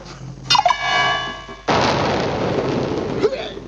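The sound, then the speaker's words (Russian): A ray gun is fired three times: a quick run of three descending electronic zaps with a ringing tone that gives way to a loud, sustained rushing blast before a final faint zap. “Пауэлл тщательно прицелился и трижды нажал спусковую кнопку.”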